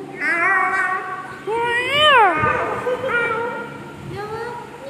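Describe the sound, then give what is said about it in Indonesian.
A cat meows repeatedly, with long drawn-out, rising and falling cries, several calls in a row over quiet background noise. “Hai Miau Jawab dong”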